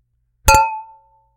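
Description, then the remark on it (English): A single bright clink of wine glasses of Picpoul Blanc touching in a toast, fairly loud, followed by a clear ringing tone that fades away over about a second. No voices. “All right. Well, cheers. Cheers.”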